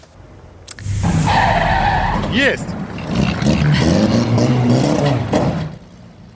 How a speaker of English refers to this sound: No, your eyes do not deceive you. That car just rolled right over and kept on going.